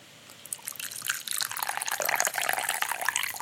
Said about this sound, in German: Oder wenn man, wenn man sich etwas eingießt.